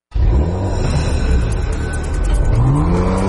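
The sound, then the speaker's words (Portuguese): A Porsche sports car engine revs up loudly, its deep growl climbing steadily in pitch with a smooth whirring whine, heard alone without any voices. “Compre seu carro com quem é referência em Porsche há 25 anos.”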